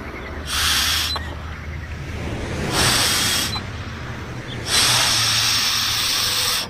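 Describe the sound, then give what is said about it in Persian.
Three long, breathy blows into a police breathalyzer, each a steady rushing hiss lasting about a second, separated by short pauses over a low background hum. No one speaks. “سه بار توش فوت کن”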